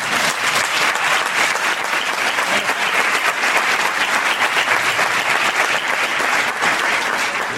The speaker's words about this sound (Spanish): Dicen, vamos a dar un fuerte aplauso a los invitados.